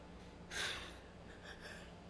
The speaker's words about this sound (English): sorry, had to uh, yawn there.